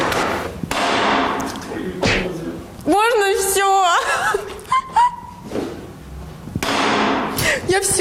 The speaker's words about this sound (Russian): Там что-то отлетело внутри. Конечно, отлетело. Ты фигачила по нему молотком.